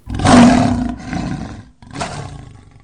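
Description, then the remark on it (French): A huge animal roar bellows out loud and deep, surging in two long rumbling bursts with a brief gap between them, with no voices around it. “Et le quatrième en fut quitte pour des oreilles bouchées, suite à un énorme rugissement poussé à côté de ses ouïes.”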